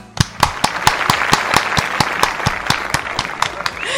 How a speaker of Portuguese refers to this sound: Palmas para o nosso convidado.